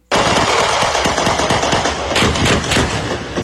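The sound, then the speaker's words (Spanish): A rapid, sustained burst of automatic gunfire at the Campo Alegre residential complex in Manatí at 3 a.m. on a Friday, loud and dense, with shots cracking in quick succession for a few seconds and no voices. “Esta espantosa balacera despertó a los vecinos del residencial Campo Alegre en Manatí el viernes pasado.”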